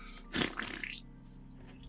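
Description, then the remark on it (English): A novelty gadget, a small stone about an inch by an inch, is clicked and lets out one loud, raspy fart noise lasting under a second, then fades into quiet background hum. “It's funny because fart.”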